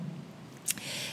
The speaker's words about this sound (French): Et euh, moi qui suis venue en Thaïlande pour être proche de l'eau, eh bien, euh, figurez-vous qu'il y a une rivière juste au bord de ma maison et c'est le bruit de fond que vous entendez.